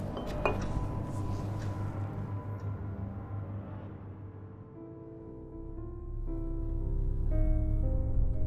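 A glass clinks once, sharply, near the start, as someone takes it from a cupboard, with a low sustained musical drone and soft tones continuing underneath and after.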